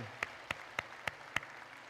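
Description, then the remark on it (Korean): A church audience claps together in unison as applause of thanks to the Lord, in a steady, even rhythm, with five sharp claps about a quarter second apart and no voices. “우리 주님 앞에 감사의 박수 올려드리겠습니다.”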